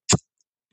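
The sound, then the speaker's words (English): A person imitates with their voice the spit of a strutting turkey gobbler: one quick, sharp, breathy burst, fairly loud, followed by silence. “You'll hear a, if they're close enough, you'll hear him spit.”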